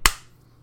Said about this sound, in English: Yeah. That's, that's so like a, that's the sound of a fist hitting like, face.